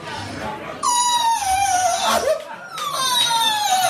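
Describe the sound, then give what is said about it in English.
A voice mimics Milk's loud, drawn-out wailing sobs from backstage, likened to a dying pig: two long descending cries with a brief break between them, strained, rising sharply at the start of each wail. “and I was like, oh my god, there's a dying pig backstage.”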